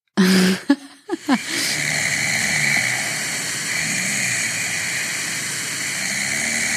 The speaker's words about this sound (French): ça, c'est …, …, qui ronfle.